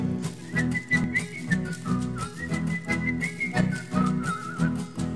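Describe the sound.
Someone whistles a wandering tune, only the music instead of singing the little song, the thin, high melody sliding between notes for about five seconds over a steady, rhythmic low-pitched backing, with no talking.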